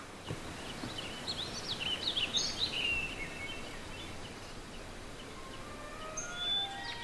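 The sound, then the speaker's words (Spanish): A burst of quick, high-pitched bird chirps flutters for a couple of seconds, followed by a few fainter tweets later, over a steady low background hiss with no one talking. “¿Y dónde están los pájaros de mi cabeza? Ay, ¿por qué están encerrados en esa jaula?”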